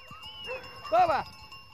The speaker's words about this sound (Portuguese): vão continuar pelo monte a pastorear cabras e ovelhas.